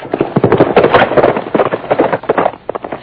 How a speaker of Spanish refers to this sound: Ay, uno de a caballo se fue.